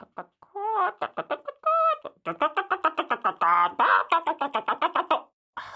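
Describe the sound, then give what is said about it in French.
A voice imitates hens clucking, a rapid run of short, pitched clucks and squawks in uneven bursts, fairly loud, with a final brief cluck after a pause. “Vos poules sont des gardiennes qui veillent à l'équilibre de la plaine.”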